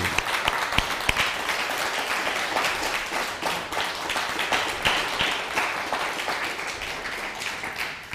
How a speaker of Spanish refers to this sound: Así que vamos a darle un honor al Padre Eterno, ofreciéndole un gran aplauso de ovación al Padre Celestial.